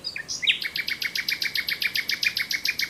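bird, nightingale song

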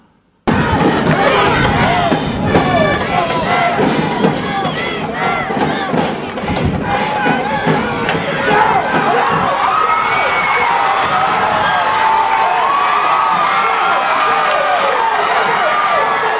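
crowd, stadium crowd cheering

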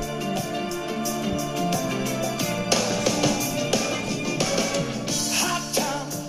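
pop song playing

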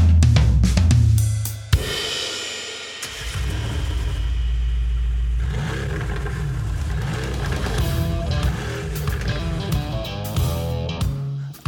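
vehicle, car engine revving

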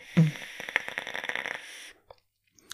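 human body sound, vaping on an e-cigarette

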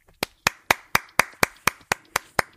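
crowd, applause

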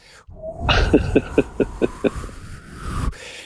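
nature, wind noise

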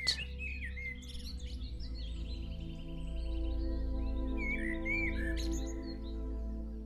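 bird, birds chirping

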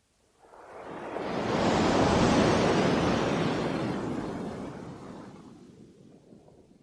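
nature, ocean surf waves breaking

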